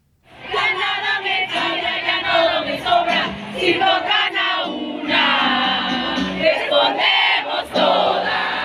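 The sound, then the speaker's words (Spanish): A large crowd chants and shouts together at a feminist street march on Paseo de la Reforma in Mexico City on 8 March 2022, voices loud and sustained in rhythmic surges with a dense, continuous roar beneath and occasional sharper cries rising above. “Nos quedamos con esta cápsula sonora de lo que fue esta marcha.”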